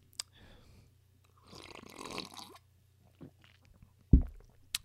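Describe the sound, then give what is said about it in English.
A loud slurping sip of coffee lasting about a second, preceded by faint mouth clicks and followed by a sharp, low thump, with no one talking. The coffee is from Ralph's, made in a small coffee maker from Target. “I'm going to take a sip of my coffee real quick, very loudly.”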